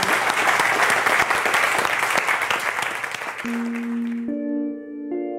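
A large audience applauds at the end of a Long Now talk in dense, steady clapping that gradually thins out, while sustained musical tones begin to sound over the fading applause near the end.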